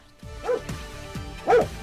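A female dog barks several times in quick, uneven succession, short sharp woofs, with the final bark the loudest. No one speaks.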